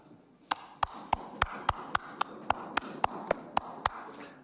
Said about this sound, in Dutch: applaus kreeg niet heel veel navolging